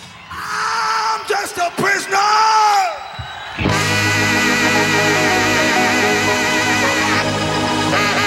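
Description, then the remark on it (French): At a rock concert in a 15,000-seat sports arena in Houston, Texas, a singer lets out several loud, wavering shouts and whoops, then a full rock band crashes in at high volume, the dense live music continuing to the end. “Puis il lâcha un cri.”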